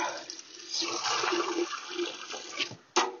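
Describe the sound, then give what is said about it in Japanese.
Tap water, turned on at the faucet, gushes steadily into a watering can, a continuous rushing and splashing that swells slightly, then ends with a sharp knock or clunk. No one speaks. “今、と聞こえてますが、これあの、水道を回して、あの、水を、じょうろに入れている音なんですけど、まあ、こんな音とか”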